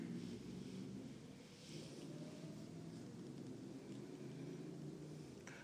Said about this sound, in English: Yeah. That's traffic.